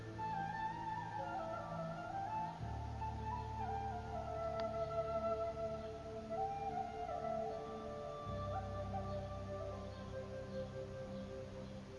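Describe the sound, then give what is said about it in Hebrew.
A flute plays slow, sustained melodic notes over a steady low drone, calm and continuous throughout, with no voices. “יותר מעניין, מגוון, ואנחנו נשארים על צליל החליל.”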